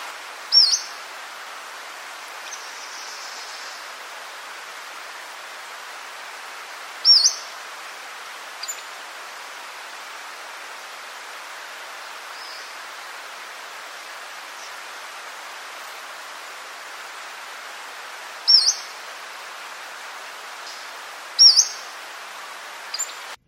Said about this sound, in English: So here is the, shall we say, the get your attention whistle of the Pacific Slope Flycatcher, uh, which you might hear in a forested area